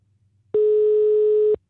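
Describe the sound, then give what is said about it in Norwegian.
A single steady telephone ringback tone sounds for about a second while calling a phone number, loud and clean with an abrupt start and stop, over a faint low hum; no one speaks. “Uh, okay, Utrolig flaut hvis vi ringer feil.”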